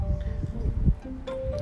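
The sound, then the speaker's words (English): Gusty wind buffets the microphone outdoors as it starts to rain, a steady low rumble with uneven bursts throughout, moderately loud, with no talking. “Excuse the wind. It's starting to rain.”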